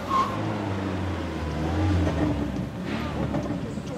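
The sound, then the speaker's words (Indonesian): A Katana car pulls up and settles to park in front of a house, its engine giving off a steady low rumble that hums evenly for a few seconds without cutting out. “Terdengar suara kendaraan parkir di depan rumahnya.”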